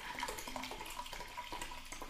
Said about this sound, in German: mal Wasser einschenken. Ja, Durst.